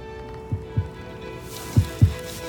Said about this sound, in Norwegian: Det er bestefars hjerteslag. Tror du? Ja, Helt siden han ble borte, har jeg hørt det.